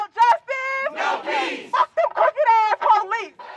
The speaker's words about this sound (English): skateboarders, students, activists, and families shouted from the rainy, cold streets for days in a row to demand justice